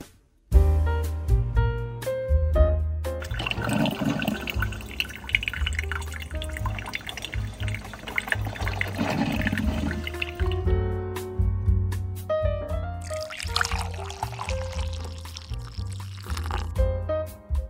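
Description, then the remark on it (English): Coffee, with Bailey's and Kahlua, pours steadily into a cup, gurgling and dripping for several seconds, the tone rising as the cup fills, with no one speaking. “I just noticed the coffee is done. Oh, cue the break music, folks. It's time to fill up this cup.”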